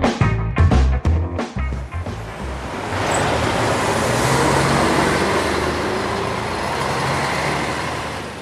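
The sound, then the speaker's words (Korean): A few sharp knocks at the start give way to a steady, fairly loud wash of street traffic and a rumbling bus engine as passengers get off a bus near the Singwan-dong bus terminal, continuing without any voices. “소린과 함께 버스를 타고 와서 신관동 터미널 근처에서 내렸다”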